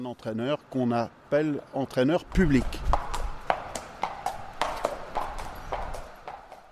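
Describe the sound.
A voice talks briefly at first, then a trotter racehorse's hooves clip-clop steadily at a trot on a hard surface at a race day, sharp knocks repeating in an uneven rhythm until the end.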